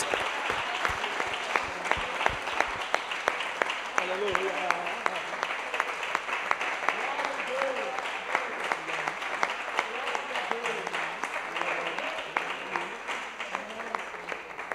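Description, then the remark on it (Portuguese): A large crowd at a Sunday worship service claps steadily and enthusiastically for Jesus for the whole stretch, a dense roar of many hands, with indistinct voices calling out underneath. “Aplauda Jesus.”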